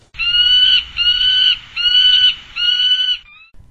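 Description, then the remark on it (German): Whooper swans, Bewick's swans or geese call in winter, four loud, brassy honks in a steady sequence, each held about half a second, with a low rumble of wind or background noise underneath. “sondern im Winter nachher auch wieder die Singschwäne und die ähm, Zwergschwäne und die Gänse.”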